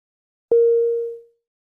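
A single electronic tone, the start sound effect played before each question in an Eiken English listening lesson, begins with a sharp attack, holds a steady pitch for under a second, then fades out. No one speaks.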